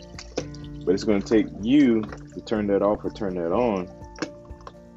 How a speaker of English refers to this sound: If you hear water in the background, I am washing dishes, so just so you know.